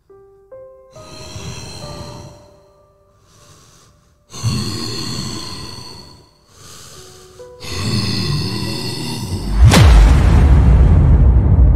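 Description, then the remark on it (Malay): A creature snorts right by someone's ear in several rough, breathy bursts of uneven length, with a few faint tones at the start, ending in a sudden loud thud followed by a deep rumble. No one speaks. “Dan eh, aku dengar lagi sekali tau Bunyi benda tu berdengus Dekat telinga aku ni”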